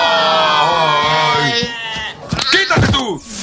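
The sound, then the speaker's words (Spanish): A sheep bleats loudly, a long wavering baa lasting over a second, followed by a shorter, rougher burst of bleating and rustling noise. “Era la época dorada de las ovejas.”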